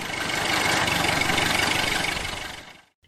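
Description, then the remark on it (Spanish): A car engine idles steadily in a Fiat car workshop with a rough, rhythmic chug and broad mechanical rumble, holding constant for about three seconds before cutting off abruptly. “Su oficina se encontraba encima del taller con los coches y a causa de los humos de los tubos de escape”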